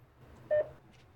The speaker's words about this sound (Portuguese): Estou tocando o interfone. Tá chamando. Dá para ouvir tocando lá dentro. Chama, chama e ninguém atende.